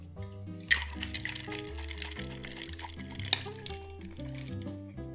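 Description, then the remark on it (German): A cocktail shaker rattles steadily for several seconds, a busy swishing clatter of ice and liquid, as a Scotch cocktail with lemon juice and ginger-honey syrup is shaken, while background music plays underneath. “Vorher schütteln wir das Ganze.”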